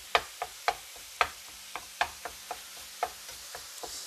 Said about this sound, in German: Ah, hörst du, wie das schon. Ah, ja, hier. Gutes Hack, wie das brutzelt. So, und das Hack wird zerhackt mit dem Pfannenwender.